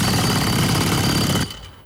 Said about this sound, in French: De l'asphalte. Du ciment. Du béton armé. Il n'y a rien qui résiste à un marteau-piqueur